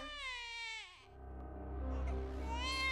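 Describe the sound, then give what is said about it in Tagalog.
A newborn, healthy baby girl cries loudly, two high, strained wails separated by a brief catch of breath, the first trailing downward and the second rising again. “Umiyak ako ng malakas.”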